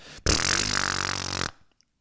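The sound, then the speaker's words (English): A person mimics an airplane propeller with a loud lip-buzz, a fluttering drone lasting just over a second that starts and stops abruptly, with no other sounds around it. “an airplane propeller.”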